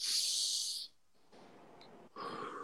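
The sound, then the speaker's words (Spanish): Someone takes a deep breath: a loud, hissing inhale, a short pause, then a long, airy exhale trailing into a second push of breath. No one speaks. “Y ahora otra vez vamos a hacer una respiración profunda”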